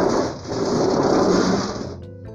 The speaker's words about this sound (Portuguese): E outra tempestade